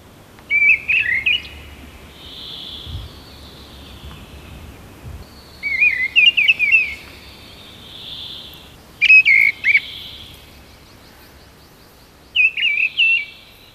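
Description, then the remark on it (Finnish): Blackbird and mistle thrush songs: four short, clear fluting phrases separated by brief pauses, ringing out against a quiet outdoor background with no talking. “Tosin tuolla pohjoisempana mäntykankaisilla alueilla, niin sitten tulee kulorastas vaikeudeksi, mutta kun mustarastas on kumminkin aika pehmeä ja hyvän tuulinen, niin kulorastas on sitten enemmän käskevä.”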